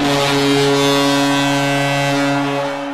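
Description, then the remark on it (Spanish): A hockey arena goal horn blares in one long, loud, sustained blast, its deep steady tone holding without a break and only beginning to fade at the very end. No voices are heard. “Bueno, ya escuchamos la bocina, lo que significa que toca la despedida,”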